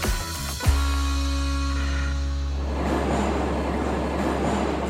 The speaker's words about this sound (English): It is actually podcast time, a bizarre podcast today here, which is the central metro station in Kiev. The central metro station in Kiev is where the four or five lines cross.